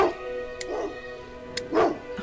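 Dogs barking in three short, separate bursts, a couple of them drawn out into whiny yips, with a few sharp clicks scattered between them.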